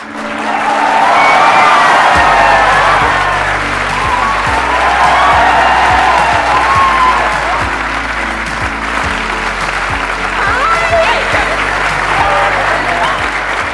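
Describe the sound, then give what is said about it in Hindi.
A large crowd breaks into loud, sustained applause with scattered cheers and whoops, welcoming a guest, steady dense clapping that holds for over ten seconds, with a low musical drone underneath. “please gave an energetic and warm welcome to the one and only”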